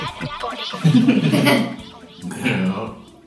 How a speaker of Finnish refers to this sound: Älä röyhtäile.